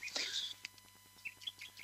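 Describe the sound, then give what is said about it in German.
Several birds chirp in quick, bright bursts outdoors where someone is carp fishing, with a louder flurry at the start followed by scattered short tweets against a faint steady background hum. “Ja, also warum sind denn bei dir eigentlich so viele Vögel im Hintergrund?”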